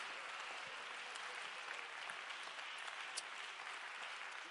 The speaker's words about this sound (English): Come on, give the Lord a hand clap of praise like you really believe that tonight.